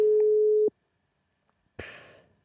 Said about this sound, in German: so, dann versuchen wir mal erst zumindest schon mal das Freizeichen.